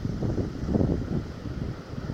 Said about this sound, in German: Wie schön das klingt. Das Rauschen des Meeres. Zwischendurch ein paar Schreie von wahrscheinlich chinesischen Touristen.